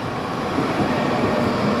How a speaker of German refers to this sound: Nochmal sorry für den Straßenlärm, aber es war wie gesagt einiges los.